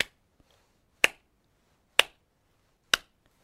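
Four crisp, quiet clacks sound alone, evenly spaced about a second apart, each one sharp and brief with a tiny tail, like something hard tapping together.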